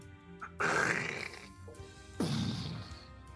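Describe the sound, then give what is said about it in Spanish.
A voice imitates a small micro-explosion with two loud, breathy bursts, a sharp hiss-like blast followed by a second rumbling puff, with no words. “una microexplosión.”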